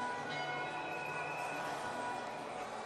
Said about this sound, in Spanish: Sí, están sonando las campanas, ya son las 12 del mediodía en Colombia.